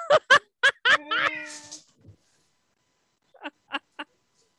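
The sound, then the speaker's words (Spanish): A pet cat meows: a quick run of short, sharp meows and one longer drawn-out cry, then after a brief pause three softer, clipped meows. No one speaks. “Bueno, espérate, vos estáis eh, viviendo al un zoológico, ahora es un gato.”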